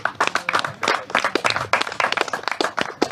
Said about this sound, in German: Genau, Applaus gibt es beim Runtergehen.